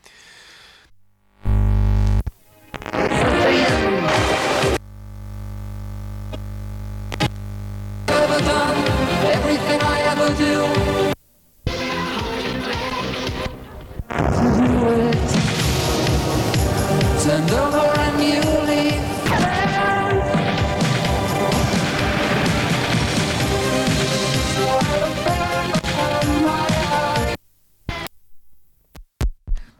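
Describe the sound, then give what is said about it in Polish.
A cassette recorded from an external source is played back on a tape recorder, loud and clear: dense music with a low thumping hum at the start, a few abrupt dropouts, and a short sung phrase. “To było nagrywane ze źródła zewnętrznego, jeszcze trzeba wziąć pod uwagę, którego teraz posłuchamy.”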